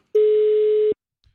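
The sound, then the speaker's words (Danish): A single steady electronic telephone ringing tone sounds for nearly a second, loud as if through a handset, then cuts off into silence while a phone call is placed. “Nu, nu ringer vi så til Line Kirsten.”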